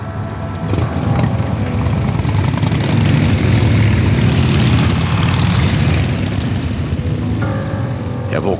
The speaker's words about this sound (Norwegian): av et drønn fra motorsykler som forlot gårdsplassen under meg.